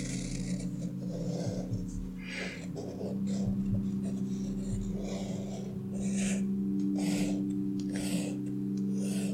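Irregular scratchy strokes of a pen dragging across paper as a giant candy in a crinkly, colourful wrapper is drawn, moderately loud, with short bursts of quick scribbling over a steady low background hum and no talking.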